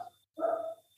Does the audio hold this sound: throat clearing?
no